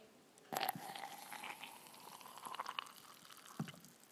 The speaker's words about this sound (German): Leeren wir jetzt Milch in das Glas.